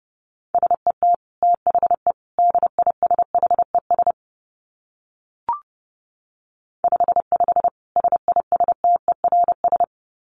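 Rapid Morse code at about 30 words per minute: a single steady mid-pitched tone keyed in quick dots and dashes, in two bursts separated by a pause with one brief click, and no voices.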